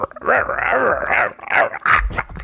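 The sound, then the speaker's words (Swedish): A person growls playfully into the microphone, imitating a tiger with a few rough, rumbling vocal growls in quick succession, fairly loud. “Eh, om jag var en tiger då skulle jag nog eh, låta så tror jag.”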